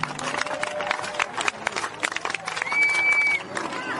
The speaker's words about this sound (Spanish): Así que felicidades y un fuerte aplauso para todos ellos.